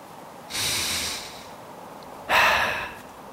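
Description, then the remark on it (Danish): A deep, breathy sniff in through the nose, followed a moment later by a second, sharper rush of nasal breath, as someone breathes in the scent of salt, water and grass. No talking. “Og prøv så at snuse ind.”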